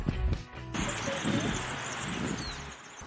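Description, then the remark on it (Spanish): A folding chair clatters and rattles as it is pried open, followed by a few seconds of scraping and shuffling noise. “está resistiendo la silla”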